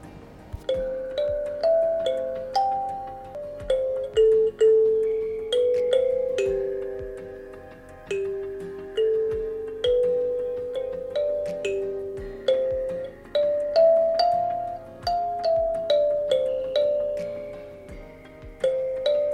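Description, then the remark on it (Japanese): A kalimba is played in a work room, a slow, gentle melody, each plucked metal tine ringing out with a bright bell-like tone and decaying sustain, clear with no talking. “今目の前にカリンバがさっき練習してたので置いてあったんですけどちょっと弾いてみようかな。”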